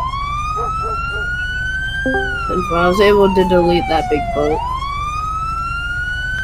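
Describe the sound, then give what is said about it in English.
A wailing vehicle siren sweeps steadily up and down throughout, loud and continuous, while a man talks over it partway through. “Can you turn your sirens off, dude?”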